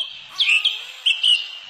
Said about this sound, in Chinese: 这是森林的声音